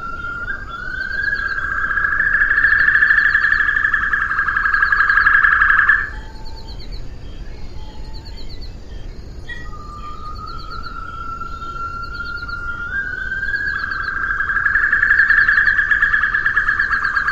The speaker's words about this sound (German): die in der Literatur als sehr variabel beschriebene Stimme der ausgestorbenen Assumption Weißkehlralle zu Gehör bringen zu können